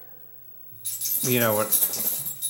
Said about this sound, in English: That was our dog Troy. We apologize.